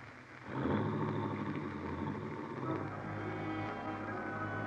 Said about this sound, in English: You watch Helen's car slip quietly down the road.